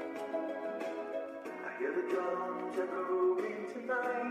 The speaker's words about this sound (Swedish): Hör ni den subtila mixningen? Att det är ett litet eko på det så att det låter som att det är i ett övergivet köpcentrum det här.